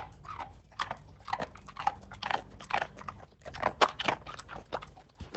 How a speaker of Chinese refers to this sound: 对，是狗，它狗吃吃东西的声音，还好不是人。